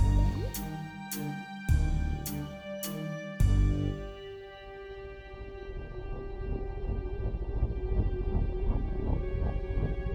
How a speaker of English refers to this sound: I love the sound of the Zeppelin.